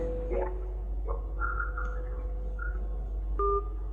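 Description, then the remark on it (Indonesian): Electronic telephone line tones after a phone-in call cuts off, sounding over a low steady hum: a series of short beeps and held tones at shifting pitches, moderately loud with no voices. “Ah ya, mohon maaf terputus tampaknya.”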